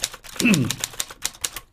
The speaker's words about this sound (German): Du guckst so, als hättest du diesen Jingle auch noch nie gehört. Kennst du nur deinen?